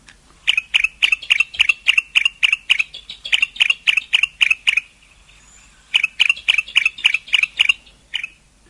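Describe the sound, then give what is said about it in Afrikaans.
A bar-throated apalis calls, a fast run of sharp, evenly spaced chirps repeated in three bursts with brief pauses between, loud and clear with no talking. “Die een is 'n bandkeeljantjie wat so klink”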